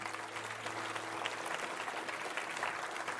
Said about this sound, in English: Can we just give them a round of applause as we pray?